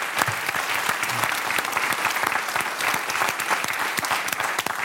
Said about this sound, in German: Das heißt, du hast einen Applaus.